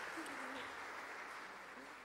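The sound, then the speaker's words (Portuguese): A crowd claps steadily for three leaders for about two seconds, a dense, even patter of many hands with a few faint voices mixed underneath, holding at a constant level before tapering slightly at the end. “Uma salva de palmas para elas que elas merecem, gente.”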